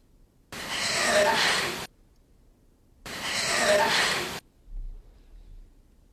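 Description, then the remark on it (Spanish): Two long, ragged, loud breaths in a paranormal psychophony recording, each lasting over a second with a pause between them, as if someone is struggling to breathe, followed by a brief low rumble. “seccionada la psicofonía, escuchamos de nuevo esa respiración que, por cierto, parece es que alguien que está, no sé, respirando muy mal y el fuera ahora es, no voy a decir nítido, pero está.”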